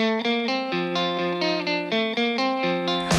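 An instrumental opening of a song: bright, heavily processed synth or guitar notes stepping through a melody in a steady rhythm, rich in harmonics, with no voices yet.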